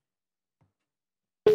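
A telephone ringing tone on a call placed to a professional, the fourth ring: after more than a second of silence, a single loud, steady, mid-pitched electronic tone starts abruptly and holds to the end, with no voices.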